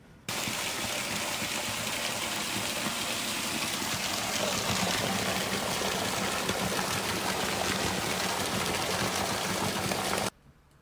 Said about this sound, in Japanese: この修行される方とかがよくいらっしゃって滝修行されるそうなんですが。この神秘的な滝の音を少しリスナーの皆さんにもお聞きいただきたいのでよろしくお願いします。